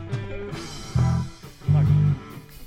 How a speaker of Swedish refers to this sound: Nu hör vi ju då, vilka är det här? Eh, det är ett band i alla fall som soundcheckar. de soundcheckar.